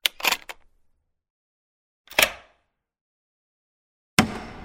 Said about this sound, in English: The bloody door's stuck! Cut! Oh, maybe it's locked. Try this key.